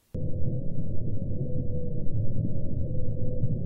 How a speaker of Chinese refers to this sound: 让他们更觉得奇怪的是，这个很像蓝鲸的声音，它的频率居然是五十二赫兹。因为根据理解，其实蓝鲸的频率一般都是在十到四十赫兹之间。给你们听听，我个人觉得五十二赫兹鲸鱼的歌声是非常非常美妙的。